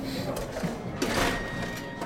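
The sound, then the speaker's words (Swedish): A cocktail shaker holding a drink with Angostura bitters and sugar syrup is shaken without ice, giving a steady, rapid rattling and sloshing with no clink of cubes, fairly loud and continuous for about two seconds, with faint voices underneath. “Och så skakar vi den utan is.”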